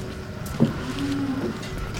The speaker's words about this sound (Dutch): Dit is de Friese Holsteinkoe, denk ik. Ja. De bekende Nederlandse koe. De, de, de, nou ja, hoogproductieve melkkoe.